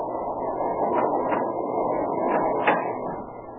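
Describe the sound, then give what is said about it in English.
A train gaining speed rumbles steadily with a dense, low roar, broken by a few sharper metallic clacks at irregular intervals. No voices are heard over it. “And as the train gained speed, the silhouette of a man was outlined against the lighted door.”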